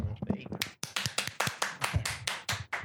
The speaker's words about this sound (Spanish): A huevo, a huevo. se le pone más aplausos con efecto.